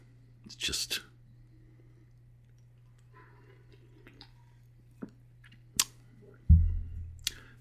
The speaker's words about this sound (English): Oh, he's just the sound you hear. That's just him. he's just drinking coffee.